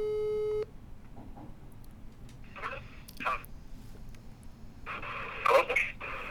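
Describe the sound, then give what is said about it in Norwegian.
A single steady telephone ringing tone sounds at the start, then cuts off, leaving crackly line noise with faint, muffled voice-like bursts coming through a phone on a call with poor reception. “Nå ringer du i hvert fall.”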